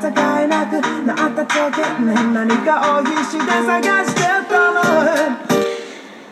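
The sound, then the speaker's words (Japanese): A dense, melodic music loop with punchy beats and a programmed piano sample plays while a resonant filter's frequency is swept downward from the count of four, gradually dulling and muffling the tone, then the sound drops out near the end. “こんな感じこーワン、ツー、スリー、フォーから周波数の値がどんどん下がっていくからどんどん音がこもっていくんですよ。”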